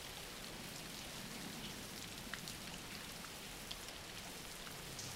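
Steady rain falls continuously, a dense even hiss of droplets with occasional sharper patters on a surface. No voices, just a soft, constant wash of rainfall throughout.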